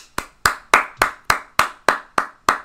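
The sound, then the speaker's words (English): Slow, steady golf claps from a single person, about nine in a row spaced evenly, crisp but not loud, with no voices. “All right, golf claps. I'll take them.”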